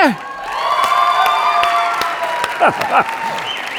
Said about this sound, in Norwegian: Jeg er alltid så fascinert av hvordan sånne lovsangsband tar imot applausen. Denne applausen er til dere!